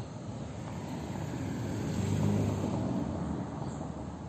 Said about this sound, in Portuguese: Tá passando o carro, calma aí.